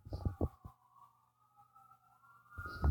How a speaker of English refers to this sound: I'm on the 25th floor and that's how loud it is in here. Wow. Those are loud sirens. Get out of the way, people.